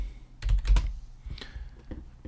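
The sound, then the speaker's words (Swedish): Quick clicks of keys on a computer keyboard, a short burst of several taps, then a few more scattered presses as the typing trails off, while someone searches Wikipedia for the number of guns in Sweden. “Ehm, och det är bara till att wiki-klicka på antal vapen Sverige.”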